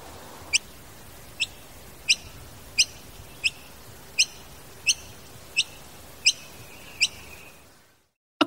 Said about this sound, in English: Superb fairy wrens are a common sight on the Australian National University campus in Canberra. As it happens, the school grounds also receive plenty of visits from a gray bird known as the noisy miner.